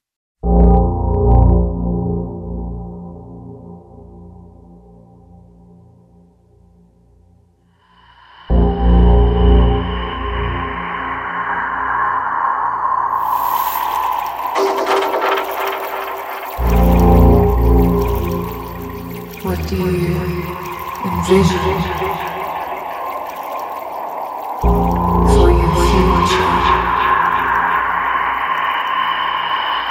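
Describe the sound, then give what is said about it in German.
A collage-style music track built from everyday work noises, with low droning layers and watery, squelchy textures that drop out and return in distinct sections, loud and continuous throughout. “mischt Track aus Arbeitsgeräuschen”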